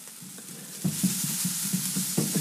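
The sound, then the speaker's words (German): A food mixture seasoned with salt and pepper sizzles steadily in a hot pan while it is shaken a little to spread it evenly, giving a series of soft rhythmic scraping bumps over the constant high hiss; no one speaks. “Ich schüttle es ein klein wenig.”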